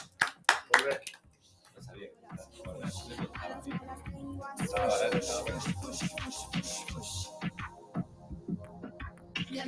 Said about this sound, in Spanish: Gracias, chicas. Un aplauso para ustedes. Bueno, para usted, para vos, tú.